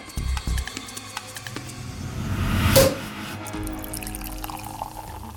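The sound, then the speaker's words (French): Champagne poured into a glass, a fizzy gurgle that builds to a short bright surge midway, then eases into a soft crackle of bubbles. No voices. “Victor Booth savoure son champagne.”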